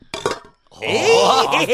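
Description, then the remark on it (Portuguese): A couple of quick glassy clinks ring out as cups are tapped together in a toast, then a brief pause before lively voices rise, talking and laughing over each other. “E vamos fazer um, um brinde, brinde, aqui para fazer. Brinde, sem derramar, peraí, peraí.”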